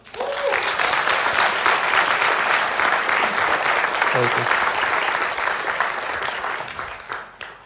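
Sustained applause from an audience, a dense, steady wash of clapping that holds strong for several seconds before thinning out and fading at the end.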